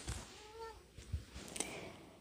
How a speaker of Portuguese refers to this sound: Se pegarem a gente, ele vai ser jogado na rua, insistiram os meninos de dentro da caixa de papelão que Satoru estendeu para o vendedor, começaram a soar miados desesperados como uma sirene.